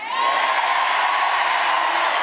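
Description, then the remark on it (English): A loud, sustained cheer from a large audience voting for going a week without a shower, full of overlapping shouts and whoops, holding steady for a couple of seconds. “Can I get a cheer for everyone that wouldn't have a shower?”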